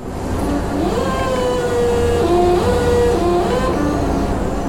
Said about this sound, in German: Ein elektrischer Gabelstapler surrt über den Industriehof. Auf den Stahlarmen sind Pressspanplatten übereinander geschichtet. Der Staplerfahrer lenkt das Fahrzeug in eine kleine Lagerhalle.